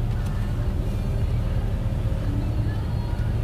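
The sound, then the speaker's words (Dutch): A steady rumble and wash of noise from inside a car wash, water streaming and running off a vehicle under a constant low mechanical drone, with no clear speech. “Maar kijk dat water dat valt er gewoon af.”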